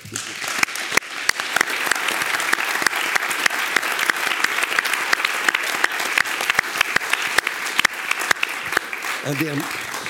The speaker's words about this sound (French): et eh bien, je tiens à ce qu'on les remercie, qu'on les applaudisse.